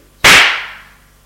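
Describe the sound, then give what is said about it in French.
One loud, sharp slap across the face, a man slapping a woman back, cracks out of silence, then fades over about a second with a faint ringing tail. No voices accompany it. “Il se serre les lèvres et lui rend sa gifle.”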